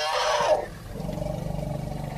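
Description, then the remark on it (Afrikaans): A loud, brassy elephant trumpet blares for half a second, then gives way to a low, throbbing rumble that pulses steadily to the end as elephants communicate. No one speaks. “Olifante kan ook kommunikeer met hierdie geluide en dan kan hulle ook met eh, lae frekwensie geluide kommunikeer wat ons nie kan hoor nie, maar hulle kan mekaar hoor.”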